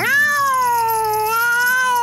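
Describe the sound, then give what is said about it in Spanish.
A female kitten gives one long, drawn-out meow lasting about two seconds, clear, its pitch sliding slightly down and back up, with no other sounds around it. “Salí del País de las Maravillas y vine hasta aquí por la gatita Dina.”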